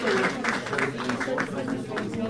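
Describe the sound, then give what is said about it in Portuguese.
A crowd applauds steadily in a room at the ambulatory centre of Hospital de São João as the first person is vaccinated against Covid-19, dense rapid clapping sustained throughout at a moderate level, with voices talking and murmuring underneath the applause. “houve sempre aplausos nesta sala, no centro da ambulatório do Hospital de São João.”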